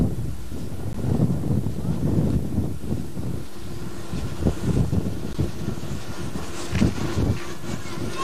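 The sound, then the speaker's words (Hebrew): Wind turbines at a wind farm north of Tel Hazeka turning in the wind give a steady, low roaring whoosh, with gusts buffeting the microphone and a few brief thumps rising above the constant rumble. “אנחנו בחוות הטורבינות, צפונית לתל חזקה.”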